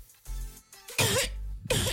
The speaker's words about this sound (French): Attention, on va tester la toux. Euh, petite toux, s'il te plaît,